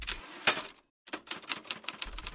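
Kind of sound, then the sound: machine, typewriter keys being struck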